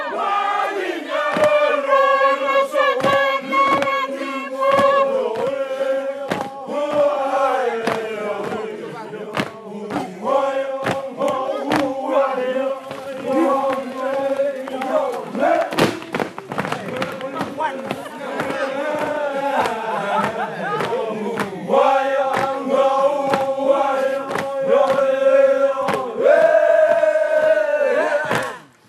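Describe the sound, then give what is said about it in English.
About 50 people, men in woven headpieces and women in brightly coloured pandanus skirts, dance and sing a song about blackbirding together loudly in unison under a large banyan tree, strong harmonic chanting with sharp percussive stamps and claps throughout, continuous for the whole stretch. “There are about 50 people dancing and singing the song.”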